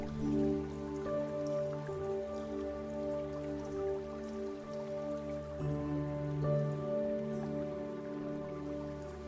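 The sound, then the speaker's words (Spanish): Steady splashing water of a waterfall runs continuously with the current beneath a soft, sustained musical drone of held tones, the watery hiss staying constant and fairly low throughout with no voices. “Y escuchas cómo el agua corre con la corriente.”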